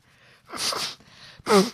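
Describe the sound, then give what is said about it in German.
Someone blows their nose in two loud, breathy bursts, the second ending with a brief honking tone. No one speaks. “ich habe mir gerade die Nase geputzt und ich wollte es ganz unauffällig machen”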